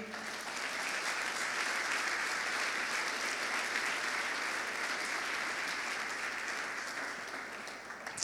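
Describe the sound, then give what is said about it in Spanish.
An audience applauds God after a short prayer, a dense wash of many hands clapping at once that holds loud and even for several seconds before tapering slightly at the end. “Dale un fuerte aplauso a Él.”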